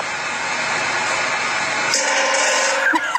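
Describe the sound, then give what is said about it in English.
A woodpecker hammers on the metal satellite dish of a next-door neighbor's house, a fast, continuous, buzzing metallic rattle that holds steady for about three seconds and shifts in tone partway through, with no voices. “There is a fucking woodpecker on my next door neighbor's satellite dish.”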